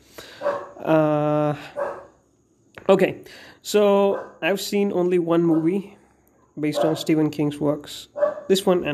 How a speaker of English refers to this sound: So sorry for the disturb- disturbance. That's my dog.